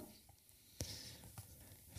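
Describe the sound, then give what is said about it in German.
Pages of a book being turned, a few soft papery flips and rustles, with no one speaking. “Super, dann muss ich mal eben blättern.”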